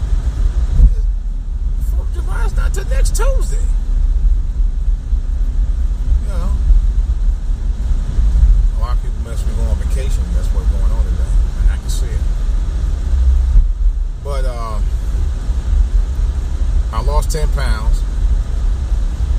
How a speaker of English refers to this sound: Why is this traffic so bad today? Jesus, it's Friday.